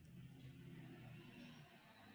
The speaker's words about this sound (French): Ne vous laissez pas distraire par les sons lointains, comme à l'instant peut-être une voiture qui vient de passer dans la rue, mais ramenez votre attention à l'intérieur de vous.